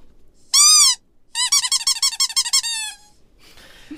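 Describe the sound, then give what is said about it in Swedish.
A short spoiler-warning sound effect: one loud, wavering whistle-like tone, then a quick warbling run of pulsing hoots that drifts slightly downward before fading to quiet. No one speaks. “Det där var spoilerhajen.”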